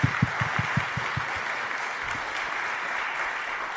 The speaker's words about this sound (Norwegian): Så ja, jeg, du fortjener en liten applaus. Ja, jeg syns det.